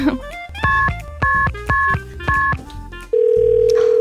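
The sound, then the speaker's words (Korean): A phone line rings back during an outgoing call that goes unanswered, with four evenly spaced electronic tone bursts, then switches to a steady continuous tone at the end. No one speaks. “아니 벌써 뭐 지금 신호 세 번도 안 울린 것 같은데”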